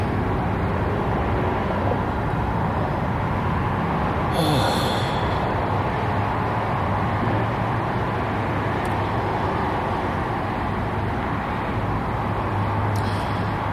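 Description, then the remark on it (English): A dishwasher beeps on a cool night: a short, high electronic chirp, then a second faint one much later, both over a steady, loud background hiss with no one talking. “Oop, that's beeping my dishwasher again.”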